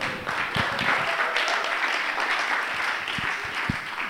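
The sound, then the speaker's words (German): An audience applauds the technicians steadily, a dense wash of many hands clapping at even loudness throughout, with no voices rising above it. “Applaus für unsere Techniker.”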